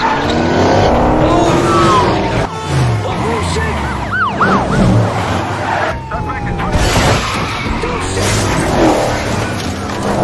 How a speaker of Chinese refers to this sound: 枪战转而变成了更加刺激的车辆追逐战，劫匪在前面跑，警车在后面追，永强的拍摄车则全程跟踪，非常的有层次感。